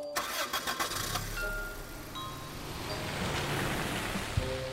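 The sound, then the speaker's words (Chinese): A car engine cranks in a few quick bursts, catches, and settles into a steady hum that rises as the vehicle pulls away, driving to a hospital, with no one speaking. “然后把它裹起来，然后就这么揣着，然后开车就往医院跑。”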